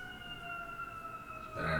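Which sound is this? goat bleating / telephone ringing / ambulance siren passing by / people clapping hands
ambulance siren passing by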